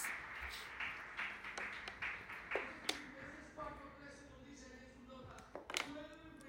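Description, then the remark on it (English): A church crowd applauds the Lord in a steady wash of clapping, with sharp individual claps standing out and some voices rising toward the end. “Give an applause to the Lord, please.”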